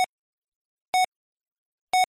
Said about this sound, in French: Bip.